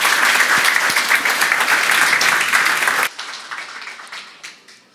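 Loud, dense audience applause after a lecture, many hands clapping at once, holding steady for about three seconds before dropping sharply and tapering off into scattered, fading claps.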